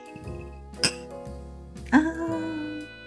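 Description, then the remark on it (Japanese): Two bright glass clinks ring out about a second apart as glasses are clinked in a toast at an izakaya in Japan, the second one louder and followed by a lingering ring and some soft background murmuring, with a steady low hum underneath. “はいじゃあね今日も乾杯で乾杯乾杯”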